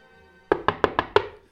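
Five quick, evenly spaced, loud knocks on the door of a house in the centre of the capital as soldiers arrive, each a sharp wooden thud, followed by silence. No voices are heard.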